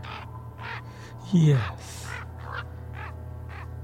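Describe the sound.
A single loud, harsh raven caw bursts out briefly over a low steady hum, while a person keeps talking before and after it.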